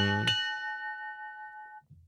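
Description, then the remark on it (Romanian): A single church bell strike rings out with a bright metallic clang, its resonant tone lingering and slowly fading for over a second before a brief low thud at the end. “ca și cum chemăm un enoriaș la biserică, trebuie să batem clopotul pentru știrea asta.”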